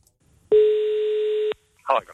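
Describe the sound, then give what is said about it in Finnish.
A single steady telephone tone of an incoming call to a phone-in contest at the radio station Iskelmä sounds loud for about a second, then cuts off, followed shortly by a brief snippet of a voice. “minä rupean vastailemaan puhelimiin ja ottamaan sut kisaa.”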